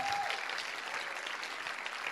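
An audience in a new cinema auditorium, Kino 1, applauds steadily, giving applause to Jesus: a dense wash of many hands clapping at even loudness for the whole stretch, with no voices rising above it.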